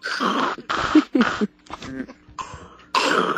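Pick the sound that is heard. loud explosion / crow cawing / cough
cough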